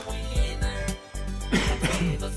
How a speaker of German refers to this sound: Zum Schluss noch der Husten, aber ich habe den Podcast überstanden.